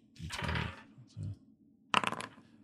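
Dice clatter across a hard tabletop in a quick burst of rattling clicks, fairly loud, preceded by a softer shuffling rattle and faint voice sounds; rolled for a wisdom saving throw, giving a 21.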